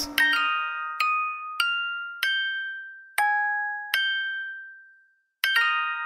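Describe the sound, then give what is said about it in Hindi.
A small wind-up toy plays a slow, bright melody of single ringing chime notes, each struck clearly and left to decay, about ten notes in all, alone with no voices. “मालिनी ने उस खिलौने को उठाया और उसकी चाबी बंद कर ली”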